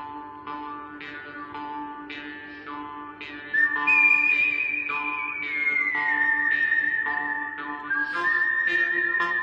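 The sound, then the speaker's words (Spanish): A sustained, bright whistled melody from the western film score of La muerte tenía un precio, of the Dollars trilogy, glides and holds over a rhythmic orchestral backing with twangy plucked notes, loud, with no talking. “todo el mundo aguantando la boquita para no silbar.”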